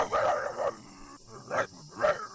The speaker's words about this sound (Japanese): 白い大きな犬は、そのおじさんに向かって、吠えては噛みつき、噛みついては吠えて追い回し、いつの間にか姿が見えなくなっていた。